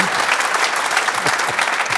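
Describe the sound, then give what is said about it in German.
Steady applause from a group of people for a speaker's honesty, dense clapping that stays at an even, fairly loud level for the whole stretch without a clear start or stop. “ja, erstmal Applaus für deine für die Ehrlichkeit.”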